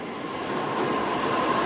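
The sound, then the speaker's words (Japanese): Dense, steady rumble of a train moving through a station, heard while waiting to change trains, loud, growing slightly louder over a brief stretch with no voices. “現在電車の乗り換え待ちで駅にいるわけですけれども”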